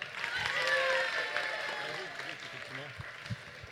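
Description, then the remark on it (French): An audience applauds the SFR and Capgemini staff in a dense, steady wash of clapping that holds for several seconds and tapers slightly toward the end, with a few voices calling out underneath. “Allez, on les applaudit bien fort.”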